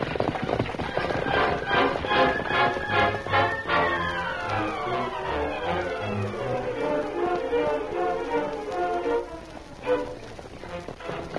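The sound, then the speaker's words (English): The hooves of Victor, a horse, clip-clop in a steady, rhythmic trot throughout, loud, with a swelling tonal backdrop of music layered over them and no talking. “Oh, what a gorgeous horse.”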